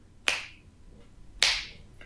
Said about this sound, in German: Und ähm, dieses dieses Testen, kann ich überhaupt, wenn ich schnippe,